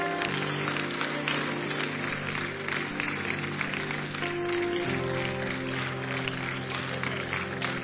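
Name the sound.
audience clapping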